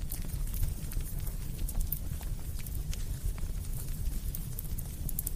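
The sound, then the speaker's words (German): A crackling campfire fills the scene with irregular sharp pops and snaps over a steady low rumbling roar, continuing evenly throughout with no one speaking. “Das ist nicht das, was du natürlich hier im Hintergrund hörst, ist ein Campfire oder eben ein Feuer.”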